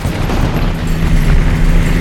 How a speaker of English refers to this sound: Lightning strike shuddered as yet another fighter flew past. The air churned with flak.